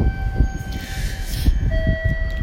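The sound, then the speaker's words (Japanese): Busy low rumble of a train station platform in Japan, beside a four-car local train to Hamamatsu waiting at platform 8 to depart at 22:51, with steady electrical hums and faint high tones, broad hiss swelling midway, and scattered soft thumps, no clear voices. “8番線に停車中の列車は22時51分発普通浜松行きですこの列車は4両です次は二川に泊まりますっていう感じですかね”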